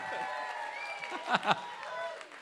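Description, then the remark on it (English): A crowd at a live show applauds and cheers after a spooky story, with whooping voices riding over steady clapping and two sharp louder bursts partway through. “Thank you so much. Give it up for Ghost Finger.”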